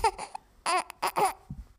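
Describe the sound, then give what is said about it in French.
A baby cries in three short, whimpering bursts, fussy wails rising and falling with brief pauses between, then a soft low sound at the end. “Oh, mais qui c'est qui pleure”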